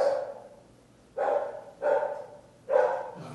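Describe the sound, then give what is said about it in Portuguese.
A dog barks in four sharp, separate bursts spaced about a second apart, clear, with no voices over it. “Achou, começou a latir, falou.”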